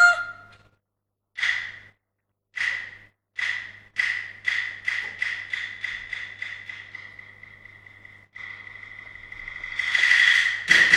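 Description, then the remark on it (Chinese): Geese honking as they run off: a few separate nasal honks, then a quickening run of calls that blurs into continuous, harsher honking, growing louder toward the end. No one speaks. “老子的鹅啊，你跑，你往哪里跑？”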